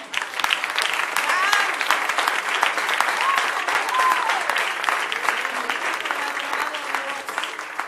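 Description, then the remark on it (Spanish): An audience at a religious service claps steadily and loudly for the whole stretch in applause to the Lord, a dense, even roar of hands, with a few voices calling out over the applause. “El aplauso al Señor.”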